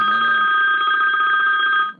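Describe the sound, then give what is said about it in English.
A phone rings with a steady, bright electronic trill, loud, pulsing rapidly for about two seconds before cutting off abruptly. “Is that your phone ringing?”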